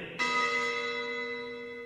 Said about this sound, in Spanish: Que suene la campana que quiero el recreo.